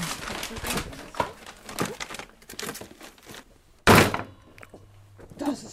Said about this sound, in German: Was ist das für ein Geräusch? Äh, Hackebeil? Keine Ahnung. Ich glaube. Hackt die Schokolade in Stücke oder so. Keine Ahnung. Doch, genau das macht sie.